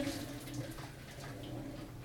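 Water pours steadily in a continuous rushing stream for a couple of seconds as cooked rice is drained of its cooking water, with no talking.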